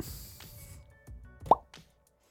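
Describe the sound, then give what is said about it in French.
A single wet, hollow suction-cup pop rings out sharply, preceded by a few soft clicks and faint handling noise, then quickly fades to silence. “Petit son de ventouse.”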